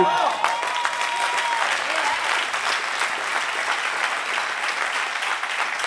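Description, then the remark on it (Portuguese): An audience applauds steadily for six seconds, a dense, even wash of many hands clapping with no clear pauses or build, holding at a moderate level throughout. “Eu senti que essas salvas de palmas foram um pouco tímidas por parte de alguns.”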